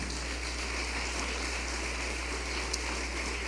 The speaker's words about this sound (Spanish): Ahí quiero que le dé un aplauso al Espíritu Santo.